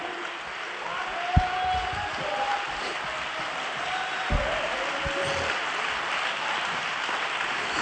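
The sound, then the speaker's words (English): A large crowd at a sermon claps steadily and loudly for several seconds, with scattered voices shouting over the dense, continuous applause and a couple of sharp thumps. “Don't stop shouting. Don't stop clapping.”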